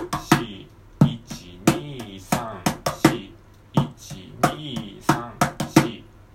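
A mini cajon is played as a fill-in practice in a steady rhythmic pattern: sharp, dry slaps and deeper thumps repeating in short groups with quick fill-in flourishes, about twenty hits, with no voices.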